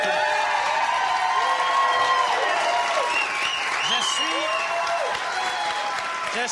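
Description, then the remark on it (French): A large show audience applauds a guest steadily and loudly for several seconds, a dense, continuous clatter of clapping with cheers and whoops rising and falling over it. “Allez, applaudissez-là”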